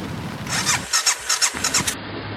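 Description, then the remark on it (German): A car-carrier train carrying a motorcycle and its riders rolls along from southern France back to Düsseldorf, Germany: a steady low rumble overlaid with rhythmic, high-pitched squealing and clattering bursts repeating every fraction of a second, with no voices. “Ja, letzte Etappe unserer Reise der Autozug schaukelt unser Motorrad und uns jetzt äh, zurück von Südfrankreich bis nach Düsseldorf, bis nach Deutschland, bis nach Hause.”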